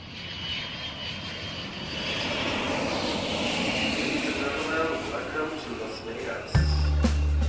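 airplane engine in flight

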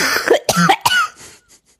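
coughing

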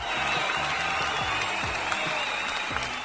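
round of applause

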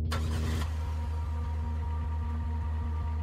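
car driving

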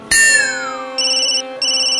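phone ringtone

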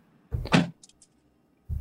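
car door slamming shut

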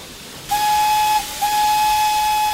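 steam train whistle

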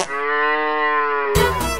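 cow mooing

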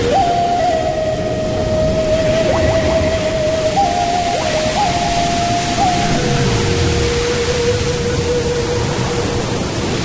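whale vocalizations

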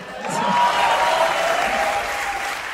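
applause

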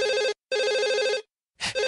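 telephone ringing

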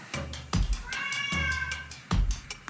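cat meowing

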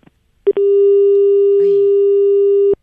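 telephone busy tone

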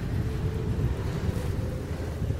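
strong wind blowing

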